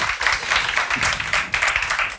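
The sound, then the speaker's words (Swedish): A live audience at a recorded panel event applauds steadily, many hands clapping at once in a dense, bright wash of sound that stays loud and even throughout, with no speech over it. “Och för att vi ska bevisa det för de som lyssnar på det här på Spotify så kan ni inte bara ge en applåd så att de hör att ni är här.”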